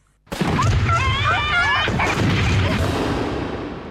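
fireworks explosions

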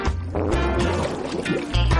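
fart

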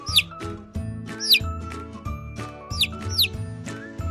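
chick peeping

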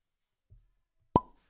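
wine bottle being opened

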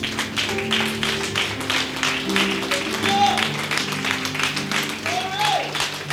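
audience clapping hands

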